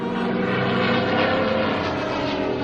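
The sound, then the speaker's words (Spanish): A steady, loud drone of fascist propeller warplanes passing overhead on a bombing raid over a town, a dense rumbling engine roar that holds constant throughout with no voices. “Los aviones fascistas bombardean la villa de hora en hora.”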